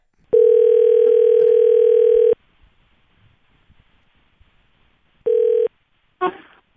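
A loud, steady telephone dial tone hums for about two seconds while a phone call is being placed, goes quiet with faint background noise, then returns briefly before a short crackly burst at the end.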